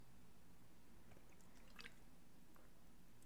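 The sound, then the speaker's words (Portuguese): A quiet sip of water, with a few soft wet clicks and a brief gulp against a low steady hum. Nobody speaks. “Com uma água.”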